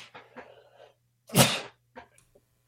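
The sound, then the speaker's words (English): A single loud, close sneeze bursts out after some quiet rustling and breathy sounds, followed by a few faint small noises, with a steady low hum underneath. “Bless you.”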